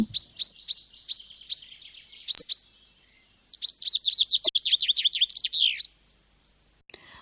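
Small birds chirp in sharp, high tweets: a run of evenly spaced calls, a short pause, then a quick, busy burst of twittering, ending with one faint chirp. No one speaks.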